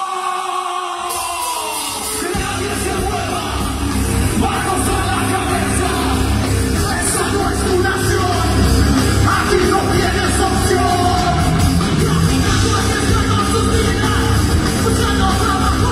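A loud, dense song with harsh screamed vocals over pounding drums and heavy distorted guitars, kicking in after a quiet opening couple of seconds and staying intense throughout.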